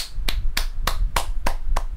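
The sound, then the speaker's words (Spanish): Applause from a single pair of hands: six sharp, crisp claps at a slow, steady pace, about three per second, over a low background hum with no talking. “Aplausos.”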